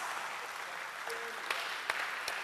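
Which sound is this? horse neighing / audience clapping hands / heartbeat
audience clapping hands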